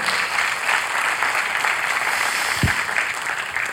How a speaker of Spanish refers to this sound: Un aplauso por ellos. Eso es bonito.